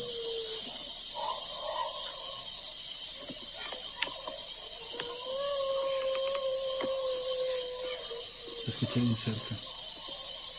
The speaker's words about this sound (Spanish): Los grillos, ¿tú los llegas a oír bien?